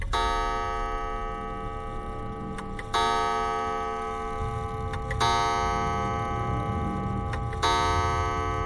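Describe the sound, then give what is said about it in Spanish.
A clock striking twelve in a reading of Edgar Allan Poe's story The Masque of the Red Death chimes slow, resonant strokes, four within the span, each ringing out and overlapping the next with a rich, humming sustain. No voices are heard. “Y del reloj brotaron doce campanadas.”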